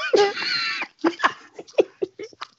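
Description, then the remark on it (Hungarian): A person imitates the growl of the Wookiee Chewbacca: one long, wavering, throaty howl, then a string of short choppy grunts and yelps, loud with no other talk. “Megpróbáltál félrevezetni, hogy melyik adásban utánoztad csubakkát, de visszakerestem az két évvel korábban.”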